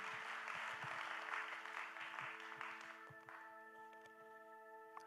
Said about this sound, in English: And uh, can we just take a moment and just thank the team, the worship team, the ushers, the welcoming team, the kids' ministry? Can we give them a round of applause and just say thank you to our team?